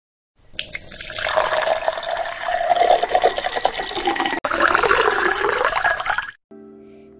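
A steady stream of fresh water pours into a glass from a clay filter for about six seconds, its pitch rising as the glass fills, then stops abruptly. Fairly loud, with no voices.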